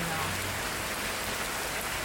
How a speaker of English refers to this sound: And there's like gentle bells in the rain too